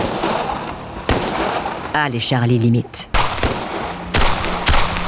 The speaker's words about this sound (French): Il donne l'alerte et ouvre le feu.